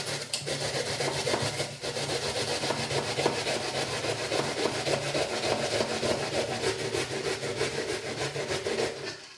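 An onion is rubbed steadily against a fine grater, making a continuous rasping scrape with fast, even back-and-forth strokes, fairly loud and with no talking.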